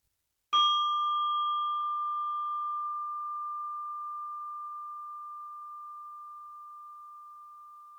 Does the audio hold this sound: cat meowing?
no